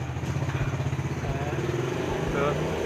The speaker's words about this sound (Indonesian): Emang kene cedak pabrik motor. Ya? Heeh. Kebak motor lewat aja.